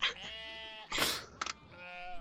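Sheep baaing from farther up a road in a short run of wavering, harmonic bleats, with a brief noisy rustle between calls; there is no talking.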